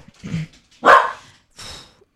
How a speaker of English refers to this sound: those are my dogs.